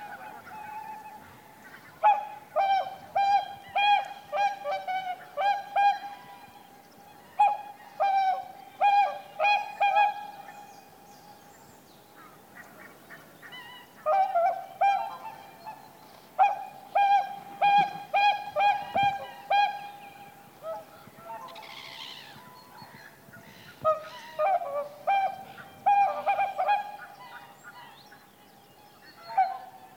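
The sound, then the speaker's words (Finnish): A whooper swan, arriving in the dark just after three o'clock and calling in front of the microphone about 30 to 40 metres away: loud, trumpeting honks with a bright, brassy tone, delivered in rapid bursts of several notes with short pauses between, continuing throughout. No one speaks. “laulujoutsen saapui heti kolmen jälkeen tähän ja komeesti mikrofonin eteen”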